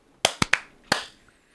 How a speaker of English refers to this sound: All right, clap sync. Three, two, one.